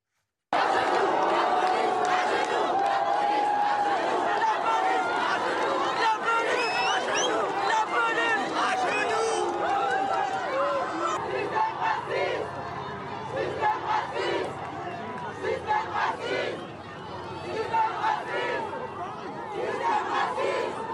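A large crowd of protesters shouts and yells continuously in a dense, chaotic roar during a police crackdown in which police are told to bring the protesters to the ground; it stays loud throughout, with individual cries rising out of the din and a slight easing toward the end.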